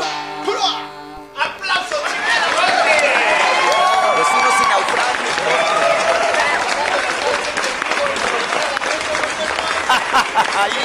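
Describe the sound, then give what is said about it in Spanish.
Steady audience applause with scattered cheers and shouts on Barroco Radio, loud and sustained for about ten seconds after a brief burst of voices at the start. “¡Aplauso,”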